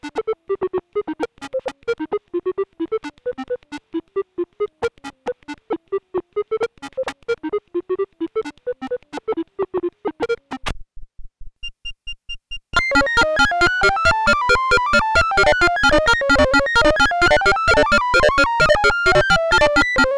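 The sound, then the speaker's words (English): Short electronic test tones alternate rapidly between a high and a low pitch, the low tone close in frequency to the high one, in two examples: a steady repeating cycle, a brief pause, then a faster, denser stream of alternating beeps with no voices. “First, we present two examples in which the low tone is close in frequency to the high one.”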